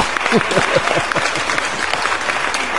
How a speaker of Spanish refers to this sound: No, aplausos no. Aplausos, chingada madre.